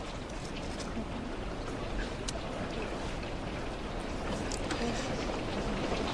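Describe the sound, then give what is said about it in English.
Steady rain hisses throughout, a dense, even wash of noise with a few sharper drip-like taps standing out here and there. “So you enjoying the rain?”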